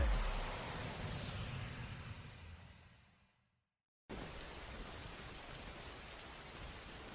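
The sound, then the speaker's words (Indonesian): Steady rain, falling after an earlier clear sky, pours with a dense, hissing patter, fades away into a brief silence, then cuts back in abruptly at the same full, even intensity. No one speaks. “perasaan tadi langit cerah deh. Kok sekarang hujan ya?”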